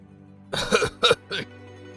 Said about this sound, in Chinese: 天行上人见到众人到齐，轻轻咳嗽了几声